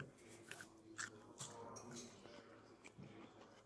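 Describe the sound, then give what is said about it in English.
Bite into a crunchy mini gherkin, followed by a few soft, wet crunching chews spaced irregularly over a quiet background, with faint murmurs of a voice. “Here's a uh, taste one of the gherkin.”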